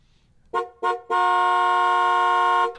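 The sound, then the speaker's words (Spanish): A car horn honks twice in quick short taps, then blares in one long sustained blast lasting about a second and a half, loud, with no voices; a driver honking at a traffic light that has not changed, telling the driver ahead to put the phone down and move. “Ahora, si no cambia la luz, si, eh, está este otro bocinazo.”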